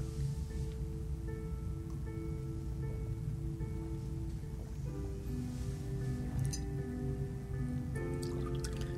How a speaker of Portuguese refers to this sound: Deixa eu encher o meu copinho, porque aí agora fica fluidificada para o beber quando terminar.